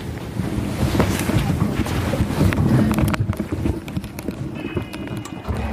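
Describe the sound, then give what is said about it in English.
A boat engine being started, turning over and rumbling, its low, uneven chugging mixed with rattling knocks and steady wind buffeting the microphone; no one speaks. “Das Boot wird gestartet und jetzt wird es gleich losgehen.”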